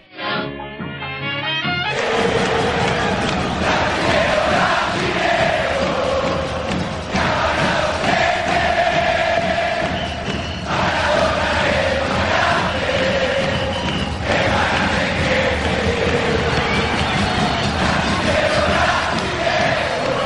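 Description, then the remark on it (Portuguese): A huge crowd of football fans sings a taunting chant in unison, provoking Brazilians that Maradona is greater than Pelé, loud and continuous, swelling in after a brief quieter opening and carrying on with a steady, rowdy rhythm. “É mais ou menos essa provocação que a gente vai ouvir agora.”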